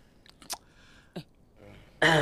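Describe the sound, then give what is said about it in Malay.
Chewing with a few sharp, crunchy bites spaced irregularly, ending in a sudden loud burst of crackling noise at the end. “Ah, mengunyah lagi, mengunyah lagi.”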